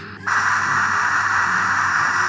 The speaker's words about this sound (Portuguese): Temos o barulho de máquina de secar